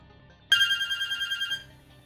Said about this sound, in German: Es klingelt.